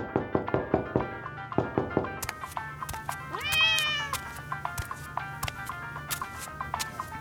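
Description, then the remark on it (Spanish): A single drawn-out cat meow rises and falls midway as someone shoos the cat away, set against a steady patter of sharp taps and knocks that are loudest and most rhythmic at the start. “Quítate de ahí, condenado gato, el diablo.”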